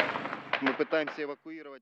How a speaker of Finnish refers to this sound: Venäjä on iskenyt tänne Ukrainaan tukikohtaan. Täällä palaa ajoneuvoja ja nyt täytyy lähteä Täällä on ammusvarasto, joka on tulessa. Tuolla näkee, siellä paukkuu öö, rynnäkkökiväärin panokset.